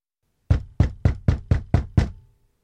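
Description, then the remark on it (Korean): Seven rapid, heavy knocks pound frantically on a locked wooden room door in an urgent, evenly spaced, loud burst, with no voices and no answer. “나는 미친 듯이 방문을 두드렸지만 아무런 응답이 없었다.”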